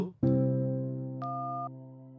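A steady, continuous electronic phone-line tone sounds after a call drops, held for about two seconds with a brief higher beep layered in partway through; no one speaks.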